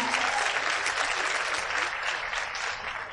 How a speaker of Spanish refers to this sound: Eh, los felicito de verdad, es un fuerte aplauso a todos ustedes porque están acá, un fuerte aplauso porque no es fácil.